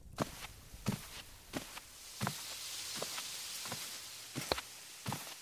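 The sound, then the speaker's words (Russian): Footsteps walk steadily across a hard floor into a kitchen, about nine or ten evenly paced steps with a soft hiss of room noise behind them and no talking. “Давай пройдем на нашу кухню, и я тебе все расскажу.”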